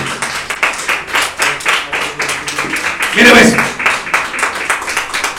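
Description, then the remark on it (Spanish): A crowd claps hands as an offering of applause to the Lord, steadily in dense, rapid bursts throughout, with a brief spoken phrase and a louder shout-like swell rising over the applause partway through. “Tengo tener ofrenda de palmas al Señor, pues, para que se le quite el sueño.”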